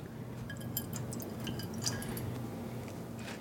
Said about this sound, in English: I'm going to pour this it's not very much, just a little. I'm going to pour it into a saucepan right on the side of the stove that I have.